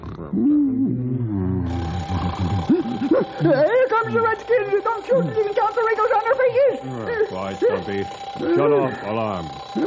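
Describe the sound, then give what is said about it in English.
An old burglar alarm rings with a steady, continuous high tone that starts a couple of seconds in and holds throughout, while voices talk loudly over it. “Well, why didn't you tell me it was just this old burglar alarm, Grey Wolf?”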